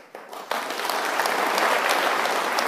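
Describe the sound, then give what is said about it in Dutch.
Audience applause breaks out after a political speech about dividend tax and quickly swells into a steady, dense patter of many hands clapping, sustained and fairly loud with no voices standing out. “Ja, zelfs applaus eh, horen, we nu.”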